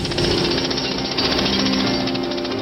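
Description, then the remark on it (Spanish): Hard stone being chipped by three men working in a quarry in a small village on the Camino de Santiago: a loud, continuous, rapid rattling hammering, like a jackhammer, with a harsh hiss and steady rhythm throughout and no voices. “Estoy picando la piedra dura.”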